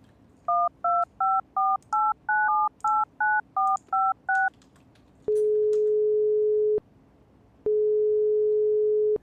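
A rapid series of about eleven touch-tone beeps as a phone number is dialed, followed by two long, steady ringing tones with a pause between them. Clear, with no voices.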